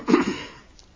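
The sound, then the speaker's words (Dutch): A single quick sip of water, a short soft slurp lasting a fraction of a second, then fading into near silence with no talking. “Voordat ik nu over de praktijk van de tekstregie begin, neem ik eerst een slokje water natuurlijk.”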